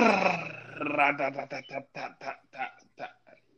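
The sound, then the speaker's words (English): A voice imitates a drum roll: a trilled, rolling vocal buzz lasting about a second, then a quick run of evenly spaced vocal beats that fade toward the end, moderately loud. “Okay, let, let me or try drum roll.”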